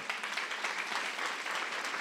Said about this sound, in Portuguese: Queridos, aplauda Jesus nessa manhã.